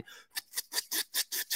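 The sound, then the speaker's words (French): Rhythmic swish-swish of nylon snowsuit and mitten fabric rubbing together as someone moves, about six quick, fairly quiet brushing strokes in a steady back-and-forth pattern, with no talking. “Fait que non, voilà le bruit des le bruit des mitaines combi, je pense.”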